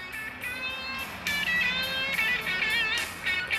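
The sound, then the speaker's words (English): A short burst of bright, upbeat instrumental music with sustained melodic notes and a steady, fairly loud level, like a sitcom's commercial-break bumper. No one speaks over it. “Sounds like Roseanne's about to go into a commercial break”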